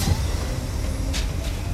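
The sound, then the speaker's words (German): A tram pulls in at a platform amid falling snow, rumbling steadily with a low, continuous vehicle drone, broken near the end by two short pneumatic hisses as its doors open. No voices. “Die Straßenbahn fuhr ein. Die Türen gingen auf, keiner stich aus.”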